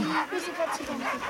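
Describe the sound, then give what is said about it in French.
Several dogs in a truck, used to children, bark in short bursts mixed with high whimpers and yips, a busy overlapping chorus with people talking in the background. “Tous les chiens qui sont dans le camion ont l'habitude des enfants.”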